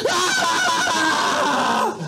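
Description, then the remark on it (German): A hissing squeal that quickly swells into loud, overlapping screams from several voices, shrill and sustained for about two seconds over a constant rush of noise. “Und ein seltsames zischendes Quietschen, was schnell zu einem Schreien wird. Von mehreren Stimmen”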